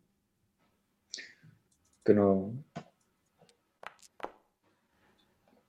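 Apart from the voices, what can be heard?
dice being rolled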